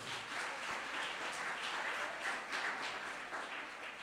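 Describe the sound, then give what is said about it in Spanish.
A church audience breaks into sustained applause for the Lord, a dense, steady wash of many hands clapping at an even loudness for several seconds, with no voices standing out. “Un fuerte aplauso.”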